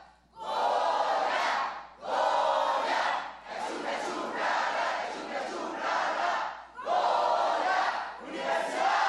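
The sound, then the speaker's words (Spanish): A large crowd shouts the UNAM "Goya" chant ("México, Pumas, Universidad") in loud, rhythmic bursts. Short repeated phrases are roared in unison, with only brief breaks between them. “Firmemos juntos el espacio radiofónico con un grito.”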